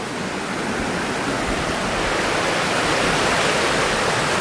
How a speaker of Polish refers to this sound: I w zależności od tego, jak te pokłady były ułożone, tak też woda je wymyła. I stąd nierówne wodospady i właśnie takie przeróżne wysepki, meandrowanie wody po naszej dolinie.